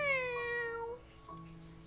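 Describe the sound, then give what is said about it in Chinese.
A voice imitates a kitten's meow: a high, falling, whiny mew lasting about a second, followed by a softer, shorter second mew. No other talking. “当我生病的时候，我觉得我像小猫咪一样弱。喵喵喵喵喵”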